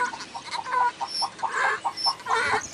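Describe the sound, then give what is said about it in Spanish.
Hens cluck in the village of Santana del Águila in a steady, uneven stream of short, throaty bursts, several birds overlapping at moderate volume, with no voices present. “Entre el cacaraquear de algunas gallinas y el reunido de un burro”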